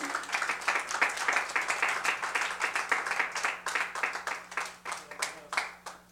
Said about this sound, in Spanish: Amén Aleluya, y le vamos a dar un fuerte aplauso a nuestro buen rey.